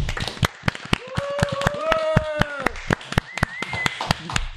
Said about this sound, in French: Merci à tous J'ai envie de dire petit applaudissement pour le pour les votants. Allez.